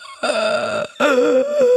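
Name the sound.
voice imitating gasping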